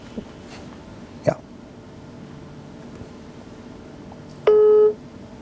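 Over a quiet hum, a brief click sounds, then a single steady electronic telephone ring tone buzzes for about half a second, clear and fairly loud, as a call is placed from a CMO Studio recording.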